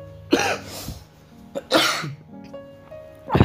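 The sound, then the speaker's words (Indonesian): Three harsh coughs come in separate bursts spread over a few seconds, with quiet pauses between them and no talking. “Lagi agak batuk soalnya.”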